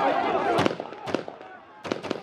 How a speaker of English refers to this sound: Soldiers firing in the air. They fear they're losing control.